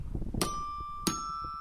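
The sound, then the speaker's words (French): A radio jingle chime rings out twice, each bright struck tone sustaining a clear ringing pitch, over a low, busy musical bed with no talking. “Et bah, jingle”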